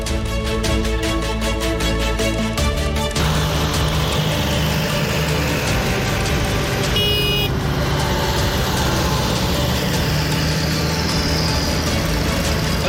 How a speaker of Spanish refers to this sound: lo están escuchando hace días, ¿eh? ya que este sonido es bastante habitual, que los cortes de tráfico se han convertido en una constante.